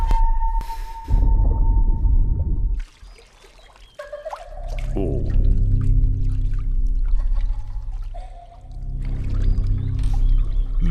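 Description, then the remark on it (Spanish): Water splashes and sloshes in a swimming pool in a horror film trailer, a steady wet churning with pouring, trickling bursts, moderately loud, with a brief quieter lull partway through. “Ay, ahí ese agua que ya Ese chapoteillo.”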